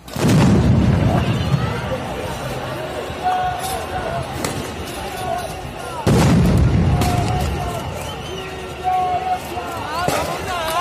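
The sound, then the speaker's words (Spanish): Two heavy, booming launches, one near the start and another about six seconds later, ring out over a noisy crowd of shouting voices as tear gas canisters rain onto a plaza where at least 20,000 people chant against violence. “Entonces, el otro ruido, la otra percusión. Las bombas lacrimógenas empiezan a llover sobre una plaza en la que al menos unas 20.000 personas corean en contra de la violencia.”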